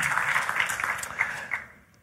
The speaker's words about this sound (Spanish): Dale otro fuerte aplauso al Rey de Reyes y Señor de Señor.